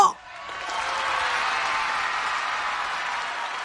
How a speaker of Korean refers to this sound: 여기서 박수 한번 주세요.